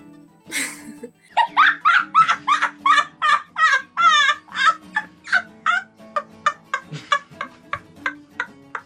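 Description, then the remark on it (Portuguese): A rooster crows in a loud, rapid series of harsh, repeated squawking bursts that keep a steady rhythm for several seconds, with no one speaking. “tá, tá, totalmente desregulado esse, esse é. galo.”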